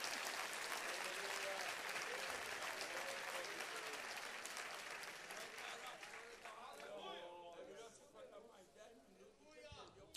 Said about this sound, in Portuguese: Se você entendeu, dê um glória para Jesus. Se vai aplaudir o Senhor, aplauda forte, bonito.